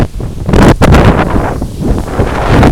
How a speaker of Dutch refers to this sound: Nou, ik ga een eind aan de podcast breien, jongens, want het gaat nu zo hard waaien.